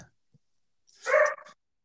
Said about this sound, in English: I was like, let me close the door, and they're still barking